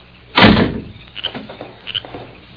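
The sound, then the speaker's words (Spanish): A door swings shut with one heavy, resonant thud that fades out, then a few faint clicks and rattles as the latch and frame settle. No one speaks. “se fue y dejó la puerta sola emparejada.”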